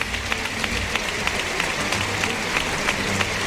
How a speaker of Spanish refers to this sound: Pues va a recibir una fuerte ovación. Sale a saludar la ovación Diego Urdiales.